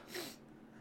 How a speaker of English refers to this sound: I'm getting ready to sneeze.